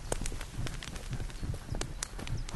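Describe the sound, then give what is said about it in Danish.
Icelandic horses' hooves clip-clop in a quick, uneven rhythm not far away, a steady patter of sharp knocks over light background noise. “Det er islandske heste.”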